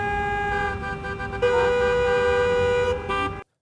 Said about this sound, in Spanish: el mundo del audio me permite hacerles creer que estoy en la calle, con tráfico, con mucho tráfico.